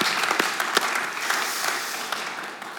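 A crowd applauds steadily, a dense wash of many hands clapping at once with a few sharper claps standing out, holding fairly loud before tapering slightly toward the end.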